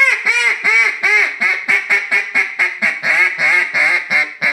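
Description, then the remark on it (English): A duck call blown in a rapid, steady string of loud nasal quacks imitating a hen duck, about a dozen bursts in quick succession with no talking. “it's unbelievable how different those ducks sound.”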